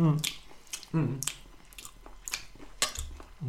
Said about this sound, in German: Übrigens, wo wir gerade diese Essgeräusche machen